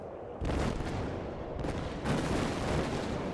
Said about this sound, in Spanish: Una explosión ocurre desde un lugar en el horizonte.